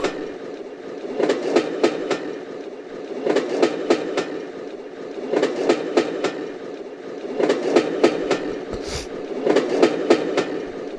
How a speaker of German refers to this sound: Holla, jetzt geht's schon mit Geräuschen los. Ein Zug.